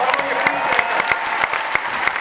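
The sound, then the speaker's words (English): A crowd claps steadily for a couple of seconds, applauding audience members who have served in the United States military; dense overlapping applause with a few sharper claps popping out. “Anyone here by round of applause? Yeah, give them a great round stop.”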